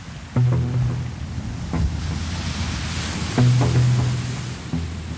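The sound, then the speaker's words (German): A passenger ship, 33 metres long and six metres wide, churns steadily through the choppy, ice-cold water of Lake Chiemsee in Bavaria in mid-November, fog over the waves; broad wash and wind noise fill the background while a low engine drone pulses twice in heavier surges. No one speaks. “Durchpflügt das eiskalte Wasser, das träge wirkt, fast wie Öl.”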